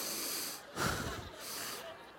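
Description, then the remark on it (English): A person imitates heavy breathing, drawing air in and pushing it out in a couple of loud, hissing, muffled breaths, as if through an oxygen mask. “and she started breathing in and out.”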